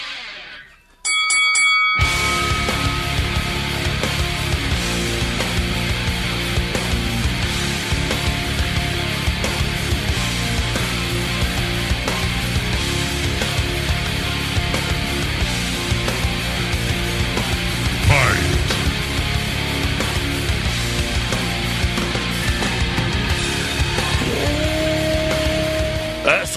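A rock song kicks in after a brief quiet moment, a dense, loud wall of distorted guitars and drums that plays steadily to the end, with no voices over it.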